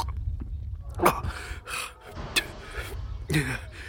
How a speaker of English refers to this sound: I think I might be sick. This here vase will do fine if you need to retch, Eben.